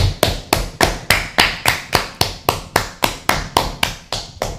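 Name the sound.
applause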